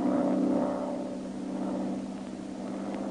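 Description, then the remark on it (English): A single-engine plane drones steadily high overhead, a low, continuous hum that swells slightly at the start and then holds even for a few seconds, with no voices. “Well, even as he talked with the Dragon Lady, a single engine plane was heard high overhead.”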